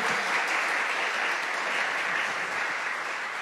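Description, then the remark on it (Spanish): Steady applause from an audience welcoming newcomers, a dense wash of many hands clapping at once, sustained and fairly loud throughout with no voices standing out. “Denles un fuerte aplauso a todos y una, una bienvenida.”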